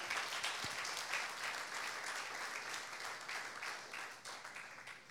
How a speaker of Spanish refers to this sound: Dale una ofrenda de palmas al Rey.